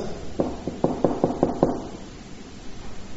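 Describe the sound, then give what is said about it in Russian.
Six quick, evenly spaced, sharp knocks on a door, followed by a quiet pause with only faint background noise. “кто-то стучится в дверь.”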